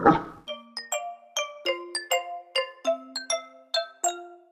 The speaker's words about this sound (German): ja, und den, und den letzten Wuff hat natürlich wieder unser Temperamentsbolzen,